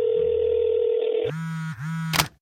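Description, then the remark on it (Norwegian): A steady electronic phone tone holds for about a second, then gives way to a lower, buzzy tone that dips briefly and ends with a short burst of noise, like a call connecting, as someone phones an expert. “Jeg ringer en ekspert.”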